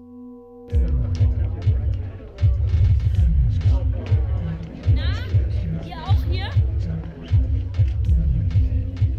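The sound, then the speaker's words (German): Crowd murmur in a queue outside a nightclub, with a muffled bass beat thumping steadily through the walls and a voice speaking briefly over the chatter. “Wir stehen hier gerade in der Schlange vor dem coolsten, exklusivsten, teuersten Club der Welt.”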